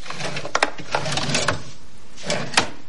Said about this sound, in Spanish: Busca en los cajones de la mesilla.